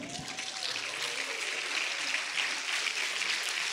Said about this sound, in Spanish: No, yo dije, ahorita le van a dar un aplauso al Señor.